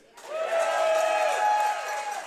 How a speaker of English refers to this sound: It's perfect to have him on this week on the show because, of course, he began his career as a Kansas City Chief and was so great. That deserves a cheer, right?